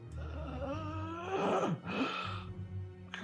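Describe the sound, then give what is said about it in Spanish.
A voice imitates the labored, gasping breathing of an emaciated old man: strained, drawn-out groaning breaths with rough rasping inhales, fairly loud, with no spoken words. “Sus ojos, llenos de cataratas, Jadea respira con mucha dificultad.”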